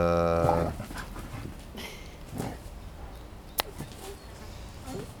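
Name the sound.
dogs playing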